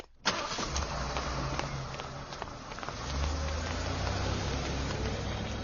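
A car engine starts abruptly with a loud crank, settles into a steady rumbling idle, then revs up a little and keeps running, with no voices.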